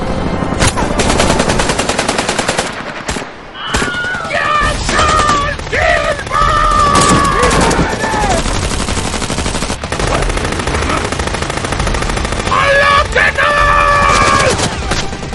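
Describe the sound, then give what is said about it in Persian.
Loud, dense bursts of machine gun fire from two sides rattle almost continuously, with overlapping rapid shots and sharp cracks, while tonal shouts or cries rise over the barrage in a few spots. “بابامون تو تیر خورده از دو طرف دارم بهمون شلیک میکنم”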